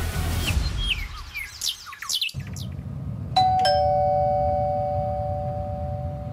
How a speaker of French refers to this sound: Le son de cette sonnette vous semble probablement bien banal.